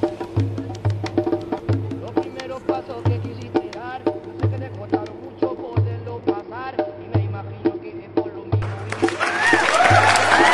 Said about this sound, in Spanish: aplausos, maldita sea. Así es.